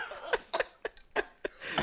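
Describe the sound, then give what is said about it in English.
A run of about six short, sharp coughs from a person in the background, spaced unevenly over two seconds, fairly quiet, with no talking. “there's … coughing in the background”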